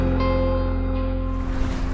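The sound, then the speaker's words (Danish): A small sailing dinghy on its way home toward Helsingør moves across choppy water, with a steady low rumble of waves and wind pressing around the hull, loud and continuous throughout, with no talking. “I en sejljolle på vej hjem mod Helsingør”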